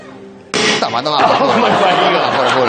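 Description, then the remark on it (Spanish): A car window suddenly shatters with a loud, sharp crash after a quiet hum, and the noisy burst carries on as excited voices and laughter rise over it. “El caso es que el tipo dijo que ese coche tenía unos, cristales completamente indestructibles. Dijo: Estos cristales son indestructibles. Vamos a la prueba.”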